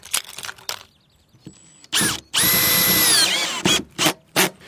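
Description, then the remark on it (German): A power screwdriver whirs loudly in a sustained burst, its motor pitch steady then dropping as the screw seats, surrounded by short drilling bursts and clicks, as hexagon-head screws with washers fasten angle iron from the inside to wooden side walls. No one speaks. “Zum Befestigen nehme ich Sechskantschrauben mit einer Unterlegscheibe und verschraube das Winkeleisen von innen.”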